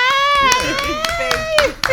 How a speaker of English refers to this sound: I'm like, oh, okay, well, let's clap and bring her on in.